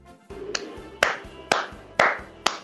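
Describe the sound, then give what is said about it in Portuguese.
Steady hand clapping applauding a football player, about five or six sharp claps at an even pace of roughly two per second, each a crisp slap over a low background hum, with no voices. “é a primeira vez que o jogador é aplaudido no futebol com pimenta.”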